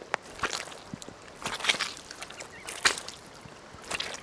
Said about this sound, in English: It's sort of raining, but just a little bit, so I don't mind. The ground is very wet though, and there are muddy puddles as far as I can see. Can you hear me squelching in the mud as I walk along?